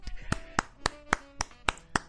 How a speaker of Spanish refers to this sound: así que yo me voy a poner de pie y voy a dar un aplauso.